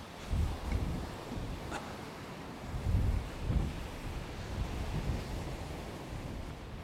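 Waves wash steadily onto a shore on a cold July day while gusty wind buffets the microphone, producing low rumbling surges that swell and recede in an outdoor seaside setting, with no voices present.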